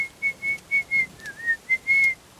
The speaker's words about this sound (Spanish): salió a la calle más contento que unas Pascuas, con su traje rojo y sus patas largas, silbando y bailando sobre los adoquines.